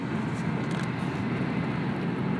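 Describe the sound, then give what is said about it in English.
A steady, unbroken rumble of car road noise, heard from inside a vehicle traveling up 85 North to work in traffic that is barely moving, with a constant low drone and faint hiss and no voices. “Now, I am traveling up 85 North, heading to work. Traffic barely moving, but, but we're getting there.”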